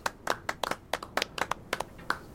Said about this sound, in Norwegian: Noen klapper.